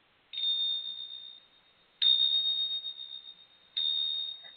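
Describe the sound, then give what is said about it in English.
Tibetan bells are struck three times at slow, even intervals, each strike giving a bright, high, shimmering ring that lingers and fades before the next. Clear, with no voices. “that is my new Tibetan, like bells.”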